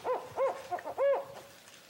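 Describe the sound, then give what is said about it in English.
A series of barking, hooting owl calls, typical of a spotted owl: several short, rising-and-falling yelps in quick irregular succession, moderately loud, with no talking. “it's this kind of cow, cow, cow, cow uh, kind of call. And I, and I, at first, I didn't, it sounded almost like a dog barking.”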